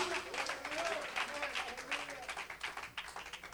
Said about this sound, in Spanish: Alguien alabe a Cristo. Oh, dale palmas al Señor y alaba su hermosura.